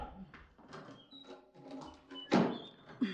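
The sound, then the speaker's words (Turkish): A door slams shut with one loud, heavy bang as someone leaves the house, preceded by faint shuffling and clattering, then a smaller knock just after as it settles. “Şu kapıyı çarpmadan çıkamıyorsun değil mi?”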